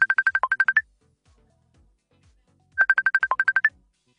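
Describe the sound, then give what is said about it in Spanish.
An outgoing phone call ringing tone: two short bursts of rapid, trilling electronic beeps, separated by a pause of about two seconds, clear and fairly loud with no talking. “A ver, estamos llamando por aquí”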